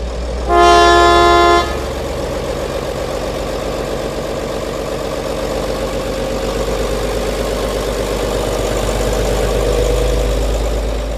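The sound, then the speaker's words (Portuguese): A diesel train departs Aveiro station on schedule, its horn giving one loud, steady harmonic blast of about a second before the deep, rumbling engine drone continues on its own with no talking. “A primeira sem guarda está imediatamente após a estação de Aveiro, aos 30 segundos de viagem o comboio, como prometido, parte à tabela.”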